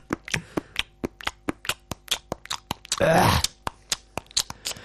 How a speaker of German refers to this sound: Nee, weil, ähm, wenn man so Kaugummi kaut wie ich. Ja. Dann ist es ja quasi Hochleistungssport.